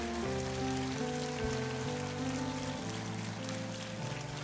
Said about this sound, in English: All of those who worked in our vacation Bible school volunteers, would you please stand on your feet? Just stand on your feet wherever you are. We want to applaud you. Thank you.